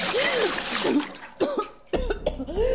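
A sudden splash of water douses someone up close, followed by a person sputtering, gasping and coughing several times as the wash of water fades.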